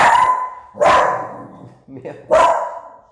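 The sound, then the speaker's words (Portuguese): A guard dog barks loudly, three sharp barks spaced unevenly over a few seconds, with a brief murmur of a voice between the last two. “Nós temos um cão de guarda aqui, pessoal.”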